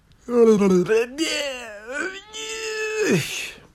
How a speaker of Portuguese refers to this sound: fazem estes barulhos quando, quando bocejam. E eu que sempre bocejo faço tipo um barulho destes. Porque eu bocejo e depois dá uma. Sempre bocejo espreguiço. E a espreguiçar é tipo. Faz estes barulhos a espreguiçar, né?